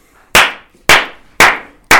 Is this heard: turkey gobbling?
no